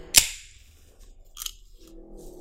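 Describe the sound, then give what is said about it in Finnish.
An energy drink can is cracked open with a single sharp, loud pop, followed by a brief soft fizz and faint rustling. No one speaks. “Minun oli pakko korkata itselleni energiajuoma.”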